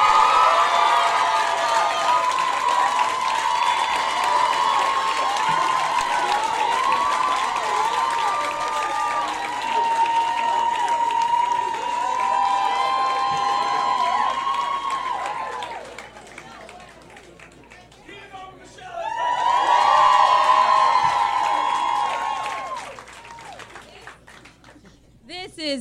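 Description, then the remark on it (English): Loud, sustained applause and cheering from an audience welcoming special guest Michelle Wolf, with whoops and shouts over dense clapping, dipping briefly around the middle before surging again and tapering off. “Give it up for Michelle Wolf, everybody.”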